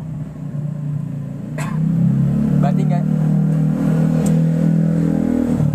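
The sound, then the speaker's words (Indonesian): Roadside traffic with passing motorcycles: a steady, loud low engine rumble that swells after the first couple of seconds and holds, with a few brief spoken words over the noise. “sorry nih guys ya karena kita podcastnya itu di pinggir jalan gitu maklumin aja ada suara-suara nggak jelas motor-motor herek”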